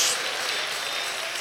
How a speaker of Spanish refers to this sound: Cristo vive, dale un aplauso al Señor, aleluya.